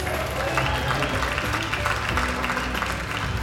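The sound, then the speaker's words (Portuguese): Steady applause from a large audience welcoming a performer onto the stage, dense clapping at an even level for a few seconds, with a faint murmur of crowd noise beneath it. “E agora no palco, o vosso aplauso”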